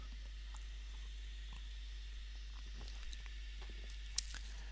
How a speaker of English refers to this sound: Anyway, calm. Take a sip of Irn-Bru.